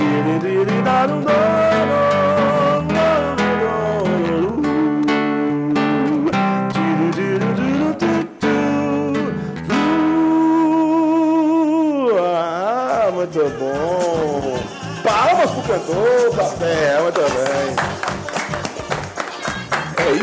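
A song plays on the radio: a sustained, wavering singing voice over full instrumental backing, staying loud and continuous for the whole stretch, with a brief dip partway through.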